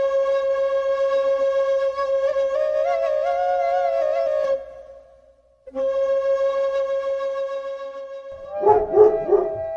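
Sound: hunting dog barking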